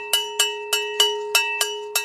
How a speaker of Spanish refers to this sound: un buey que estaba venga a menear de un lado a otro una campana grande que colgaba de su cuello.